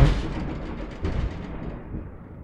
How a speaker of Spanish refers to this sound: No sé si escucharon eso, pero fue un trueno muy, muy fuerte. la verdad es que sí me saqué de onda. Dije, ¿qué, pasó aquí? Yo pensé que, de hecho, no, no sé qué ni qué pensé. La verdad es que sí, sí me asusté, fue muy fuerte.